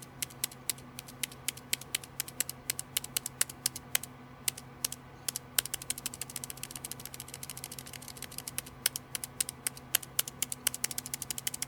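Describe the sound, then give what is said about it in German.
Rapid, uneven clicks of fingers typing on a computer keyboard, fairly crisp, continuing throughout over a steady low electrical hum, with no voices. “Genau deshalb mische ich mich nie ein, schloss der Lurker und löschte, was er in das Eingabefeld getippt hatte.”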